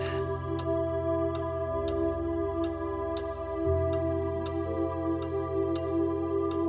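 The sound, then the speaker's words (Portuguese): A wall clock ticks steadily, about one crisp tick every two-thirds of a second, over a soft, sustained musical drone that shifts pitch midway. No one speaks. “tão tranquilo ouvir os ponteiros do relógio, da sala, do corredor.”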